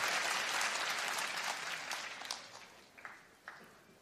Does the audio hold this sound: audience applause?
yes